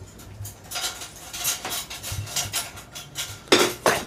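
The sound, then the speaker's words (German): A fork repeatedly clinks and scrapes against a plate, with a string of light metallic taps and two sharper, louder clanks near the end, clear with no talking. “Das ist ein Teller.”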